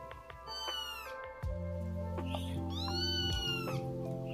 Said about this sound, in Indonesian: Tiba-tiba di bawah pohon di depan gerbang kosan ini, tak lama setelah aku berteriak di dalam hati. Suara anak kucing meong-meong tidak berhenti.